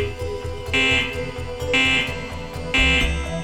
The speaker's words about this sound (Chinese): 就在这个时候，整个花园响起了像是早晨闹钟的巨大声响。